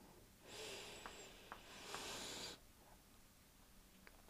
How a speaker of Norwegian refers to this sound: Men først så tømmer vi hodet vårt for tanker med å puste inn.